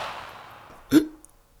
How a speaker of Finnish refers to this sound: Se oli laukaus. Äkkiä vaatteet päälle ja katsomaan. Koska se tuli läheltä.